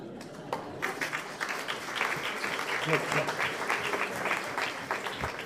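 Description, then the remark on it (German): Steady applause from an audience, a dense patter of many hands clapping at once, moderately loud and sustained throughout with no break. “Wir haben nicht so viel Zeit, einmal, weil so viel klatschen können dazwischen.”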